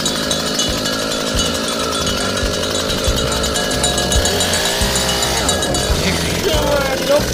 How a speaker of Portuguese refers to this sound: E agora nós vamos serrar o chifre desses três boi que foram enviados hoje pra cá, né, vai Calma, que besteira, rapaz. Olha a besteira liga o motosserra aí, vai, liga a rocha, vai, dá-lhe na partida, vai. Isso!